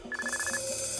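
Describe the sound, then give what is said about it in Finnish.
A telephone rings at Unto's place with a bright electronic ringtone, steady melodic tones stepping in a repeating pattern, fairly loud, with no voices over it. “Soiks Untola puhelin?”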